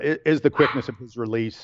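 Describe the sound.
A dog barks in the background, a few short yaps mixed under a man's steady speech that runs through the whole moment.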